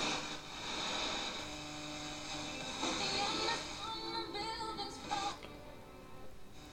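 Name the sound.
FM radio static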